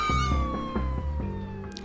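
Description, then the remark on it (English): A police siren wails steadily, its pitch sliding slowly downward, over a low rumbling engine throb, ending with a short sharp knock. “Hey, I hear, I hear sirens.”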